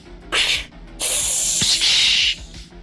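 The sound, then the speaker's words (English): A man opens a can of VB beer taken from a ute's glove compartment: a short sharp hiss, a brief pause, then a longer fizzing hiss of escaping gas with a faint click partway through. No voices. “He hands it to the man, and the man immediately opens it”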